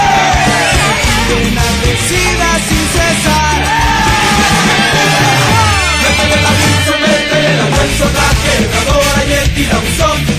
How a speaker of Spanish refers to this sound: Y la gente comenzaba a gritar.